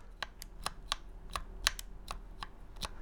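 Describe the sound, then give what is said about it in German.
Typing on a mechanical keyboard with linear switches: about a dozen crisp keystrokes in an uneven rhythm, fairly quiet, with no voices. “In dem Fall sind es lineare Switche, also man hört kein, man drückt es und dann gibt es einen Widerstand und dann klickt man erst.”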